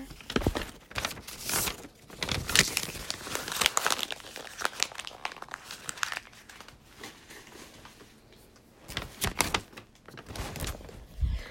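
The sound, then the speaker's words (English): A paper math final study guide being crumpled, a dense stretch of crinkling and crackling bursts that thins briefly, then returns for a final few scrunches. No one speaks. “I'm gonna throw my, my math final study guide because I don't need that anymore.”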